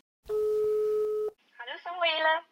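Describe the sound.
A single steady telephone ringing tone lasts about a second, clear and fairly loud, then cuts off and a person starts talking right after.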